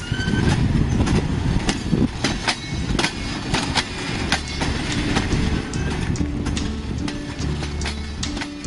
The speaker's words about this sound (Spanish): unos vagones que van ahí con esa bocina en la cual nos indica que va pasando de estación en estación.